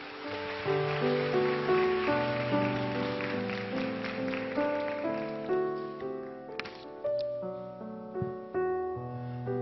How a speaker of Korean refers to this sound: 우리 목사님 큰 환영의 박수로 맞이하도록 하겠습니다.